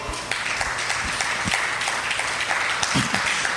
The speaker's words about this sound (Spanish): ¿Le puede dar un aplauso a Él?